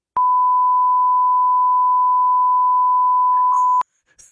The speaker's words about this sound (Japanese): これこそ P 音入れないとダメじゃないの ここ P 入れてじゃん。面倒。全部カットするか。